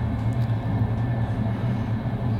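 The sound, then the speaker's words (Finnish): A steady, continuous low rumble of a moving train running through red signals and not stopping despite the emergency brake being pulled, with a droning hum and a faint rattling texture over it, unbroken throughout, with no voices. “Tämä juna kulkee päin punaisia, eikä se pysähdy jarrusta vetämällä.”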